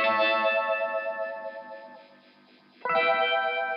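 A bright, high electric guitar sustains chords with a sweeping phaser swirl that makes the tone seem to dip and wobble. It fades slightly, then a fresh strum rings out near the end.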